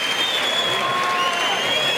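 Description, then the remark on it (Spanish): A large crowd in a bullring at the Jaén fair applauds steadily, giving the bull an ovation after it falls to a sword thrust, a dense, sustained wash of clapping with faint voices mixed in, continuous and fairly loud throughout. “Pues se va a llevar una ovación el toro, ¿eh?”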